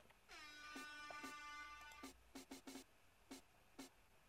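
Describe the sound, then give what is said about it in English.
A blaring air horn sample blast sustains with a falling pitch sweep, cut through by sharp percussive hits from a clap, drum roll, hi-hats and snare in a track's intro, followed by a run of crisp, rhythmic drum-like taps. “And the air horn, of course.”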